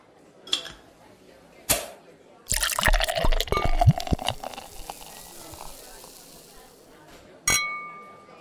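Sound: glasses clinking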